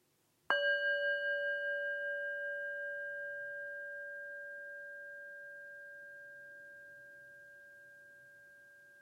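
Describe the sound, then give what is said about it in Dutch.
A small singing bowl is struck once, producing a clear, pure tone with shimmering overtones that rings out steadily and slowly fades over several seconds, heard alone without any talking. “en ik begin deze podcast weer met het eh, geluid van mijn klankschaaltje.”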